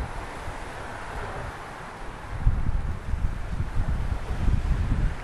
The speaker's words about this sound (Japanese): Oh my gosh 波の音が聞こえますか